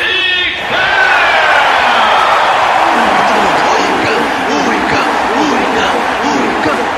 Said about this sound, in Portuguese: As coisas ficam meio divididas, alguns vaiam também, outros estão gritando o nome de Fornalha, Fornalha, e então, tal, o pessoal assim, né, vibrando, é aquele, aquele clima.